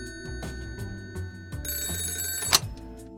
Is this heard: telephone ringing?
yes